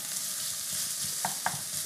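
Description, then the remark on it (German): Steady, dense sizzling of onions frying in a pan, with soft scraping from stirring and a couple of sharper clinks of a utensil against the pan near the end. “Und ich rühre, rühre, rühre.”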